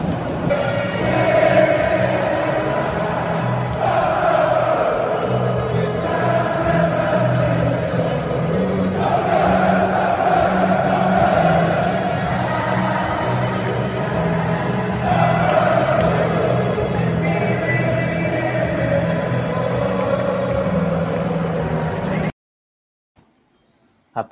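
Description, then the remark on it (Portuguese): A football crowd cheers and chants loudly and without a break at the final whistle of the match, the roar swelling rhythmically every few seconds, before cutting off abruptly near the end. “E olha, vou deixar vocês com a torcida, para vocês verem como é que foi esse finalzinho de jogo, o apito final.”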